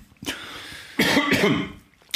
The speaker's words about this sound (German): Ich möchte mich entschuldigen fürs Räuspern, aber es geht manchmal nicht anders. Ich, ich rauche zu viel, ich weiß es. Und ich bin aber nicht gewohnt, viel zu reden.